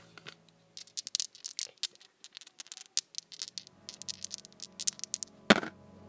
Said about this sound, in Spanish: Lanzamos los dados y cayeron en...